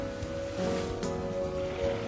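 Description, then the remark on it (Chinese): Ocean waves wash in a steady, hissing roar that swells gently a couple of times, with a sustained low musical hum underneath and no voices. “这里才是我心目中真正的大海呀，这才是我心目中的家呀。”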